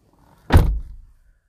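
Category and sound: vehicle, car door closing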